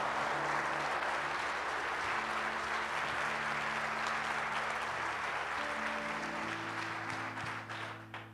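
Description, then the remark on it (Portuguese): An audience at a worship service breaks into sustained, loud applause for Jesus, a dense wash of clapping with steady sustained low tones underneath, fading slightly near the end. “Então eu gostaria que você mais uma vez desse uma salva de palmas àquele que você veio buscar nessa noite que é o nosso Senhor Jesus.”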